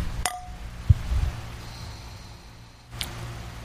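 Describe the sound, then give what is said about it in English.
Glasses clink together in a toast: one bright clink with a brief ringing tone, a soft thud, then a second clink a few seconds later. “Cheers, buddy.”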